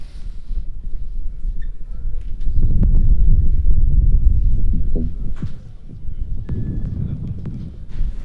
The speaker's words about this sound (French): Vous avez compris, il y a beaucoup de vent.